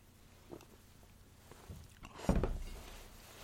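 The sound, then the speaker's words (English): A few soft, wet gulps spaced irregularly as someone chugs a beer in big gulps while taste-testing it, with one fuller swallow late on, quiet room tone between and no talking. “I am I'm taking a huge chug right now. Gulp it.”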